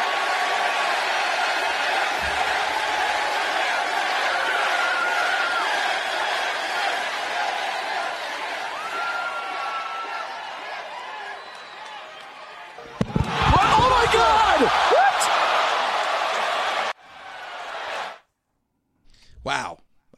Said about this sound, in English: And you heard the gasps from the crowd. After yeah. that, it was dead silence because I mean the, the the fans in attendance couldn't believe what was happening.